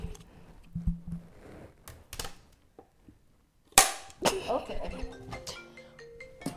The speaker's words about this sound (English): Okay, let me, let me do the clap.